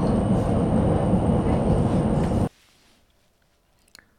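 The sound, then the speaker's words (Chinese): A subway train running: a loud, steady rumbling roar with a thin high whine on top, cutting off abruptly halfway through, followed by near silence and a faint click. “刚刚听到的分别是呼和浩特、厦门和深圳的地铁的声音。”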